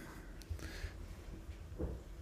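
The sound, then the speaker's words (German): A chair creaks a few times, short woody cracks and groans scattered over a couple of seconds against a quiet hum, with no talking. “Ah, der Stuhl knackt.”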